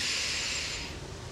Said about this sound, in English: And right now, I just want to take a deep breath in